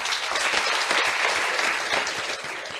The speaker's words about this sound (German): Herzliche Grüße aus Wien und ein großer Applaus aus der BH 10.